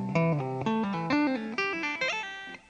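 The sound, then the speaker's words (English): A rapid, flowing run of electric guitar notes played with right-hand tapping and pull-offs, smooth and legato: tap on the eighth fret of the low E string, pull off to the fifth, then the third, repeating as it moves across the strings. It sounds clear, with no talking. “And then as you go across, it would sound like this.”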